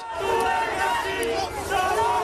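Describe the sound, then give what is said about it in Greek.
Hundreds of cleaning and health workers protesting upcoming changes to hazardous and unhealthy work allowances shout and chant together, a dense wall of raised voices with rhythmic surges, loud and continuous throughout with no single speaker standing out. “εκατοντάδε εργαζόμενοι στην καθαριότητα και υγειονομική για τι επικείμενε αλλαγέ στα επιδόματα επικίνδυνη και ανθυγίνη εργασία”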